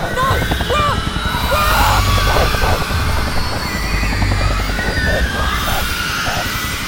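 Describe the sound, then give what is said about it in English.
A helicopter lifting off, its rotor chopping loudly and steadily, a dense rhythmic thumping roar throughout, with shouts and yells rising over the noise. “As the helicopter began to rise, I saw him.”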